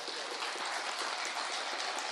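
Steady audience applause for a son jarocho group in the Sala Julián Carrillo, broadcast on Radio UNAM 96.1: a dense wash of many hands clapping at an even level for the full couple of seconds, with no voices cutting through.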